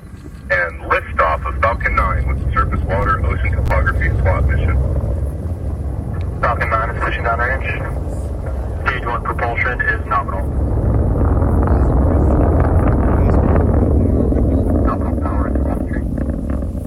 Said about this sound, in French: Le bruit, le souffle, euh, voir ça en vrai, c'est hyper impressionnant. Il fait nuit, il fait assez froid, je dois dire. La fusée vient de partir dans un halo de lumière comme une boule de feu dans le ciel.